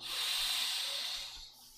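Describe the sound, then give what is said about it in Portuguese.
A single deep breath drawn in, an airy, hissing inhale lasting about a second, fairly loud, tapering off at the end with no talking. “Então, quando eu respiro fundo”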